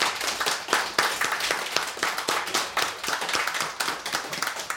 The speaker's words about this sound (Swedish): Fin dikt, Karin. Ska vi ge en applåd för Karins dikt?